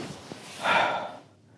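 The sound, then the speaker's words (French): Someone shifts and settles onto a bed in a hotel room, producing a short, soft rustle of sheets and bedding about half a second long, fairly quiet, with no talking. “Je me suis installé dans le lit.”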